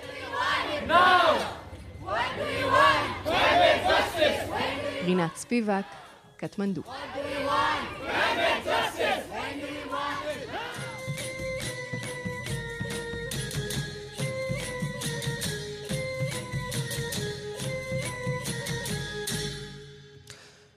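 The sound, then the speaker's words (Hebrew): Children's protest crowd in Kathmandu chants loudly in rhythmic, repeated bursts for several seconds. A single voice briefly speaks, then a steady tonal music bed takes over and continues to the end. “עד שזה יקרה, הילדים בקטמנדו מבטיחים לשוב ולהפגין בכל שישי.”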